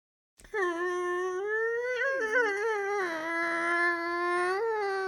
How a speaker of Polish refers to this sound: Drzwi się otwierają z takim przerażającym piskiem. Nawet jak próbujesz, nie wiem, tak jeszcze wolniej, to dalej to tak piszczy.